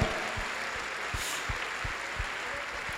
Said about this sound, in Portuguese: Vamos dar um aplauso aí decente, vamos lá.